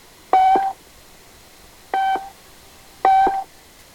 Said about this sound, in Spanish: Le troisième top marqué 17h30 sur Radio Tunis